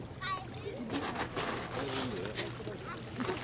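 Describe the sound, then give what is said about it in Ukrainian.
Water from the Elisenbrunnen drinking fountain in Aachen, built in 1827, splashes steadily and continuously, a fairly loud hiss of falling spring water, with faint voices murmuring in the background. “Das hier ist der Elisenbrunnen aus dem Jahre 1827. Und das Wasser kann man trinken.”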